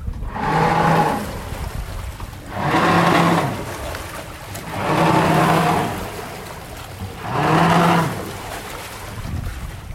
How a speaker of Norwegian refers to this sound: Og det er klart at vi har jo hjelpemidler, vi også. Sånn som denne baugpropellen her.